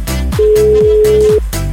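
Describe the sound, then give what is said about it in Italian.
A single steady ringback tone, about one second long, sounds on an outgoing phone call over a loud, busy music bed with sliding bass notes. “Ultimo squillo e lo mandiamo a fanculo garbatamente.”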